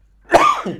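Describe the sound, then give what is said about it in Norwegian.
A single sneeze bursts out sharply and loudly, then trails into a short, breathy, slightly voiced tail. No one speaks. “Prosit. En gang til.”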